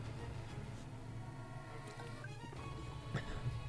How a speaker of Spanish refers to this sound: Bien, perdón que he otro traguito de agua que se me está quedando la garganta súper seca.